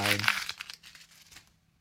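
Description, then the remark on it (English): Paper is crumpled in a loud, crackling burst and thrown out, then softer crinkles trail off over about a second and a half. A brief voice sounds at the very start. “I'm so glad you threw the paper out.”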